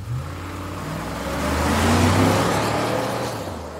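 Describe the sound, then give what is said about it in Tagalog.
A large truck roars past on a busy road with many passing vehicles, its deep engine rumble and rushing road noise swelling to a peak midway, then easing off. No one speaks. “Isang malaking truck ang halos”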